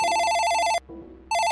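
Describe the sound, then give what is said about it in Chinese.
A hotel room telephone rings with a bright, shrill electronic bell, two loud bursts split by a short gap, the second starting just as the first fades. No voices are heard. “这个时候电话就响了，酒店的房间的电话。”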